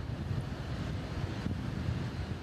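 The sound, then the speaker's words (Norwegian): A small airplane with a family on board lands in Tampa, Florida; its engine drones steadily through a low, rumbling roar, constant for the whole moment, with a gusty wind-like hiss mixed in and no voices. “Et lite fly med en familie om bord lander i Tampa i Florida.”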